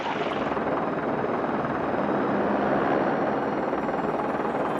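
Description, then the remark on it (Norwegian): A 330 Squadron rescue helicopter approaching in the distance: a steady, whooshing rotor drone fills the whole stretch, a dense continuous roar with a faint rhythmic pulse, holding an even level throughout with no voices. “Etter ca. tre kvarters venting hører de endelig lyden av helikopteret i det fjerne.”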